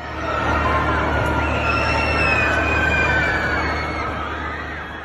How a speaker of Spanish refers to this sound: desde esos pisos se pueden escuchar perfectamente los gritos de la gente. De hecho, suena así.